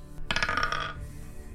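Dice clatter and tumble across a hard surface in a quick burst of bright, rapid clicks lasting under a second, then settle into quiet, rolled for a perception check and landing on 12. No one speaks.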